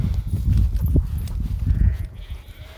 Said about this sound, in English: Um, probably hear the sheep in the background, the lambs. I'm in the woods, of the field with all the sheep and lambs.